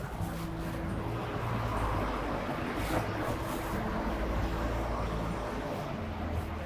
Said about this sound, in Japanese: ちょっとね、この辺りから裏道も兼ねてだけど、ちょっと車通りが多いとこ入るんで、少しうるさくなるかもす。